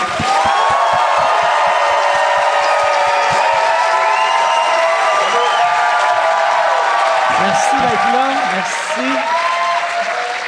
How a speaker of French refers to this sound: Mesdames et messieurs, j'aimerais ça qu'on donne une bonne main d'applaudissement à François Léveillé et Jean-Claude Gélina.